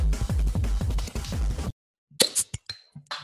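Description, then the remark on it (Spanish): A beer bottle cap pops off after a short burst of music and a pause, followed by a few sharp clinks and a brief bright fizz. “Ah, es que hay cosas que suenan bien y el sonido de una birra destapándose.”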